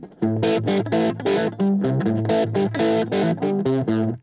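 A distorted electric guitar, a Gibson SG played on the middle pickup position, plays a choppy riff of thick, overdriven chords with sustained harmonic-rich notes and brief gaps between strummed phrases, with no voices.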